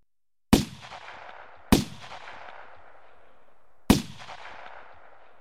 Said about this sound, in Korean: 총성이 잇따라 울리고 경기장에 붉은 흙먼지가 자욱하게 일었다.